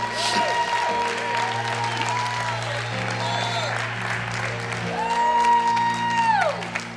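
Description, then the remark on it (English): An audience in worship claps hands steadily and shouts unto God over sustained organ-like music, with loud voices rising and falling in long whooping cries throughout, dense. “That's what somebody right now just needs to clap your hands and shout unto God.”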